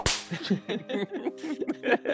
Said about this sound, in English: and I need you to put a whip sound in this bit.